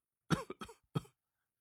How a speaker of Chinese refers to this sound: 这话说的断断续续，时不时还咳嗽一声，让刘庆的心都不由得跟着揪了一下。